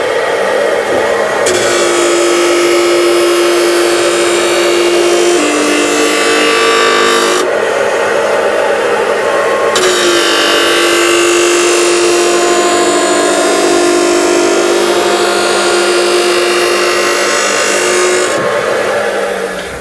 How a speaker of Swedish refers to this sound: ja nu kommer ju dammsugaren.